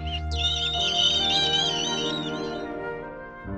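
A high, wavering squeak like a mouse, drawn out for about two seconds in quick trembling bends, heard over a steady low musical backing that continues after it fades.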